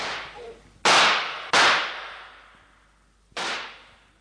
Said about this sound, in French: tandis que le plomb sifflait à travers les roseaux et que les coups de feu se succédaient.